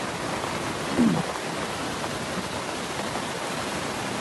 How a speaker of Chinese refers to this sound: 现在水势也是涨得非常的厉害，大家现在听到轰隆隆、轰隆隆的声音，不是打鞭炮， 是洪水冲击岩石发出的声音。站这么近，听起来还是挺吓人的。